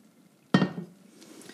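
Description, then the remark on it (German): A single sharp clatter of cookware against a plate as kohlrabi is slid off a pan onto the plate, loud, ringing briefly before fading into quiet. “Okay, auf, auf den Teller, den Kohlrabi.”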